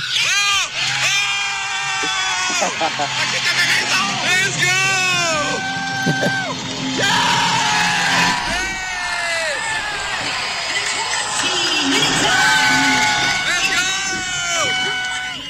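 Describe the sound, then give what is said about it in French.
A wrestling crowd cheers wildly as Kenny Omega comes out, a dense, loud roar of many voices with rising and falling yells and wails that keep going for the whole stretch without letting up. “écoute, ça, la foule a viré fou.”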